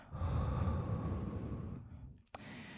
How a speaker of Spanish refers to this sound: Durante cinco segundos inhalo. Durante cinco segundos paro la respiración y durante 5 segundos boto el aire.